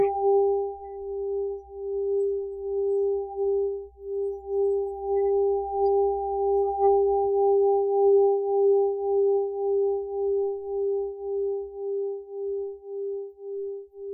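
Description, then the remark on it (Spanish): Singing bowls ring out in a long, sustained hum with a steady wavering pulse, a pure resonant tone that hangs in the air for the whole stretch, with no voices. “Y estamos escuchando justo los cuencos con los que Alma trabaja.”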